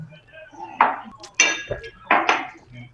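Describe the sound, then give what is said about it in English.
Glasses clink together in a toast, four bright, ringing knocks spread over a few seconds, fairly loud, with faint murmuring voices in the background. “Cheers, boys. Cheers.”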